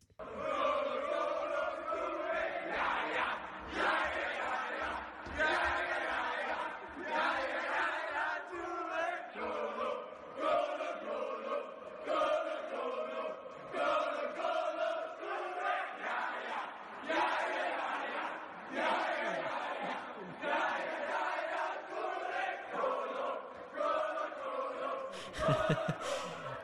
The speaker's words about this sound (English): I don't know whether it was a team or if it was just Gerrard himself, but he was in Dubai, and uh, this in and around the height of the Yaya Yaya Kolo Kolo chant. This is class.